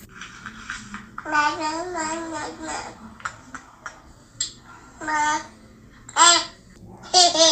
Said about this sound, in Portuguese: Eu não sei aqui se todo mundo fala a língua dos bebês, então eu já vou traduzir. Ele diz: Mamãe, eu te amo muito. Ouve só!